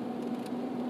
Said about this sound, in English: That's the noise of the uh, windshield wipers. It's raining it's raining.